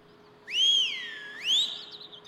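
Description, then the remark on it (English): A short human whistle, clear, sliding down then swooping back up in two connected phrases before trailing off, with no talking. “gives a little whistle uh, and says, Yeah, sometimes people get rusty.”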